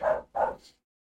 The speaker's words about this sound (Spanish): No me lo creo me lo creo. Son las diez y media de la noche. No debería porque está ladrando el perro. Sin embargo, ahí lo tienen.